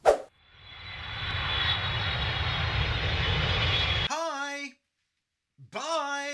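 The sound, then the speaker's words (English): An aircraft roars overhead for about four seconds, engine noise swelling then holding steady before cutting off abruptly, followed by two short voice-like tonal sounds separated by a pause. “And that was a flying visit.”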